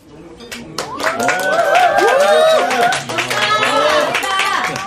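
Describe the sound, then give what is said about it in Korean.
A small group of people gathered in a small wine bar near a concert hall stand and clap steadily for several seconds to welcome an arriving performer, while many voices talk and call out over the applause, the noise staying loud and busy throughout. “도착했을 때에는 모두 일어나 박수로 맞았다.”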